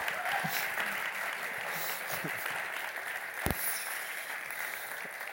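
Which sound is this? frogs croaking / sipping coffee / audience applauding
audience applauding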